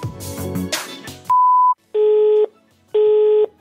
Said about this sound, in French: La personne que vous essayez de joindre n'est pas disponible. Vous pourrez envoyer un message après le bip sonore.